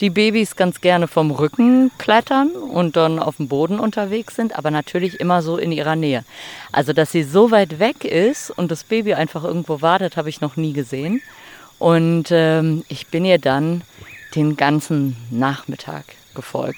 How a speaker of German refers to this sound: Also ihr hört vielleicht im Hintergrund die Grillen zirpen und äh, die Ziegenmelker äh, singen. Ähm, es ist mittlerweile dunkel, es ist Nacht, darum auch die Leuchtkäfer.